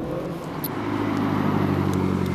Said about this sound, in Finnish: Niin, tässä oli nyt viritetty auto. Kyllä, varmasti niitä löytyy täällä myös.